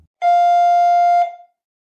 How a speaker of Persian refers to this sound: زنگ در منو از خاطراتم بیرون کشید.